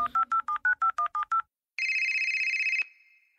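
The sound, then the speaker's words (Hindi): Nine quick, evenly spaced keypad beeps as a number is dialed on a phone to place a call, followed after a short pause by a steady electronic ringing tone lasting about a second, clear with no voices. “phone करती हूँ”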